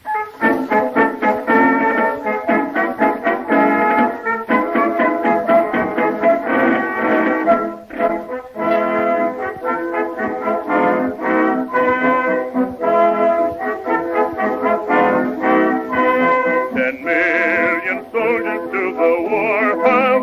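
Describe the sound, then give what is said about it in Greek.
A song written in the United States just before the outbreak of the war plays from an old gramophone record, a steady sung melody with accompaniment, thin and band-limited in tone, continuous and fairly loud throughout. “το οποίο στο παλιό γραμμόφωνο της εκπομπής ακούγεται κάπως έτσι.”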